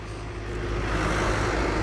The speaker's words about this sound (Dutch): Er komt even een auto langs.